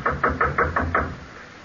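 Six firm knocks rap on a wooden door in a quick, steady rhythm, close and fairly loud, followed by a brief quiet tail.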